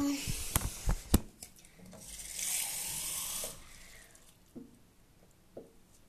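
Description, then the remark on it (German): A few sharp clinks and knocks, then a tap runs steadily for about a second and a half, filling a glass with water, before shutting off, followed by soft handling sounds. “Jetzt brauche ich ein Glas Wasser. Und zwar schnell.”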